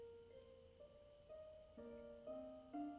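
A steady, faint trill of crickets chirping outside a house at night, continuous, with soft sustained musical tones rising gently in the foreground.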